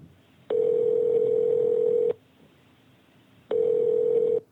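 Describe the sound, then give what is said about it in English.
A telephone line tone sounds twice as a call to the 911 emergency number goes through: two long, steady electronic buzzes, each about a second and a half, separated by a pause, clear and unaccompanied by voices. “So I dialed emergency and um, I recorded the conversation.”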